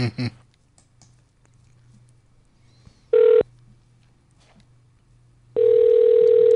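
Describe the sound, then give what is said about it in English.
An outgoing call to a singer rings through a phone line: a brief steady ringback tone, a pause of quiet line hiss, then a second, longer tone that runs to the end. “We're going to have … as soon as he picks up the phone. If he picks up the phone.”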